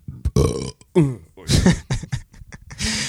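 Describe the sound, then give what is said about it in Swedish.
A loud burp drawn out over a few seconds, breaking into several croaking, gurgling pulses with brief gaps between them. No one talks over it. “Vår Discord älskar när du rapar.”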